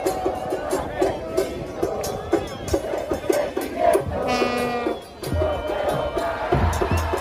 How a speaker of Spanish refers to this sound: No puedo parar, la gente vitoreaba, de hecho, miraban el avión, cuando vieron el avión en el cielo, que yo allí se quería caer, las calles están inundadas de personas todavía ce- celebrando y festejando el triunfo de Argentina